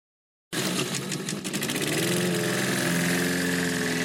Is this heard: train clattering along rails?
no